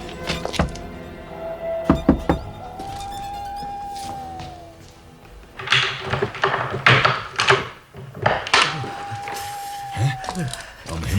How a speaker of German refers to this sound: Eine halbe Stunde später klopfte Justus an die Tür von MacAndersons Haus.